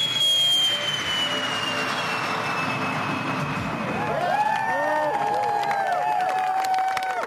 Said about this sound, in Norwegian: Romskipet har nå for første gang tent rakettmotoren og med den tenningen ble farkosten det første kommersielle flyet til å bryte lydmuren siden Concorde-flåten ble satt på bakken.